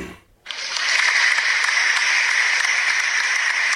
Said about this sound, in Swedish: Applåder.